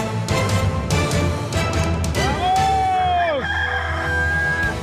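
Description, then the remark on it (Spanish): A loud rooster crow rises into a long, drawn-out harmonic call that bends and fades, set against a busy background of lively, overlapping noise. “¡Saquen el gallo! ¡Y la vaca!”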